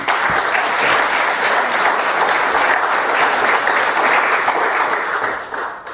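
A crowd bursts into sustained applause, dense overlapping claps holding steady and loud for several seconds before tapering slightly at the end.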